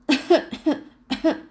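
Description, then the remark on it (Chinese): A voice imitates a group of people coughing hard after choking on sand and dust: a quick run of three rough, voiced coughs, a short pause, then two more, fairly loud with no other sound. “一群人呢被沙土呛着猛咳嗽”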